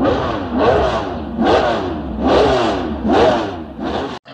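A racing car engine revs loudly, climbing in pitch in about five rhythmic bursts roughly a second apart before cutting off abruptly. No one speaks.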